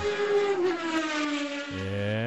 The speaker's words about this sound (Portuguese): Olha um carro passando aqui, ó. Conhece esse barulho?